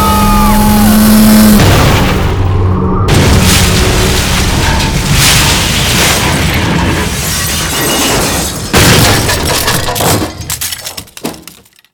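A loud car crash as a car whose brakes have failed flies off the road: a brief high whine gives way to a heavy impact, shattering glass and grinding metal that roar on for several seconds, then scattered clattering debris before it fades out.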